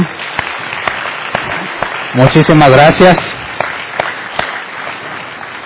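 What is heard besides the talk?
audience applause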